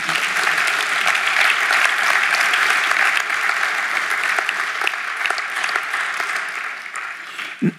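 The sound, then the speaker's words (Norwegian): Sustained applause for Jan at a church worship service, a dense steady wash of many hands clapping for several seconds, fairly loud throughout, with a brief louder burst right at the end. “Jeg syns vi skal gi Jan en god klapp.”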